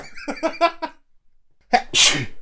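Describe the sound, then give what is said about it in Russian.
A few short, voiced breathy sounds, a brief pause, then a single loud sneeze with a sharp, explosive burst. “Будь здоров.”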